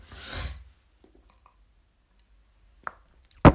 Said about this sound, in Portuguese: Olhem, vou beber um copo de água, desculpem esta ervilha, não quero me mexer.